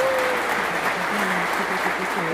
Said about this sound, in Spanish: ¡Uh Aplausos.